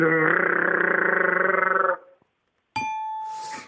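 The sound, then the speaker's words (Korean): A voice imitates a vibrating massage chair with a rapid, buzzing pulsed drone lasting about two seconds, followed by a pause and then a brief chime-like tone with breathy noise. “그, 네, 그 저기 안마 의자.”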